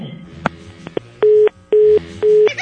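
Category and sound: signal or alarm, telephone ringing unanswered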